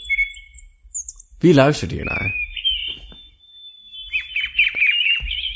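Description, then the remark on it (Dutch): Thin, high-pitched peeping of a baby chick repeats almost continuously, fairly clear, while a person briefly speaks over it partway through. “Hoort het kleins piepen?”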